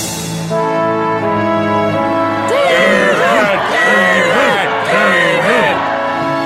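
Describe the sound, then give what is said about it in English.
A steady, droning horn-like tone plays for a couple of seconds, then a crowd bursts into loud, overlapping cheers and shouts for David after he kills Goliath, continuing to the end. “David heard cheering.”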